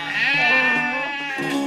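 A single sheep bleats in one long, wavering, nasal cry that briefly breaks and picks up again near the end, loud and alone with no talking.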